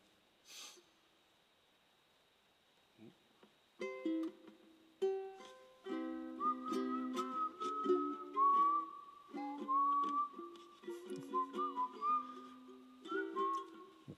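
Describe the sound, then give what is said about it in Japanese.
Someone whistles a slow, gliding melody, accompanied by plucked ukulele chords strummed underneath during a first-day ukulele practice session, starting after a brief breath and continuing steadily to the end with no talking. “うん、コードも初めて押さえてるの分かんないかなとか言ってるし口笛入れてゆっくりやってみますね”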